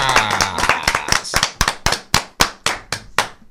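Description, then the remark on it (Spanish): A round of clapping with sharp, distinct claps at a steady, fairly quick pace, about three per second, loud and clear, following a brief tonal sound at the start. “Un aplauso a Darían Vargas.”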